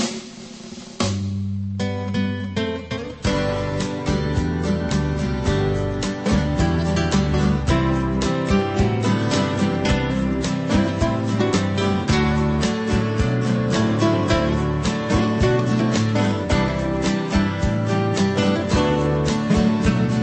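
A pop-rock song plays loud, opening with a brief sparse intro before the full band kicks in with a steady driving beat and a male singer over the guitars.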